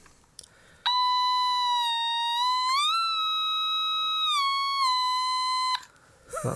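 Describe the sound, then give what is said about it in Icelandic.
An Otamatone, a Japanese electronic instrument, plays a loud, buzzy, nasal tone that holds steady, slides up to a higher note, sustains, then glides back down before stopping after about five seconds. No one speaks. “Ég elskar þennan katt sem er með Automatone Automatone, maður sjá, maður sjá það Þetta er japanska Þetta er japanska uh, hljóðfæri”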